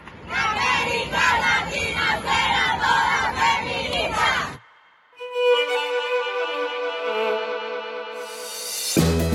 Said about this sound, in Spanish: Ellas son las que vienen y, y, se sintió como una fiesta muy llena de vitalidad, pero también entre generaciones. Un gran abrazo colectivo todo el tiempo entre lágrimas y risas y gritos de lo logramos por fin.